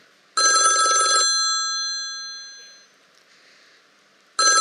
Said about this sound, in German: Berufung heißt, das Telefon klingelt.